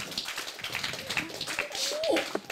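A short burst of steady applause, many hands clapping in a dense, continuous patter, with a few voices and a brief whistle-like tone rising through it.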